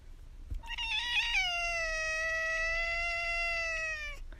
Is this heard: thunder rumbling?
no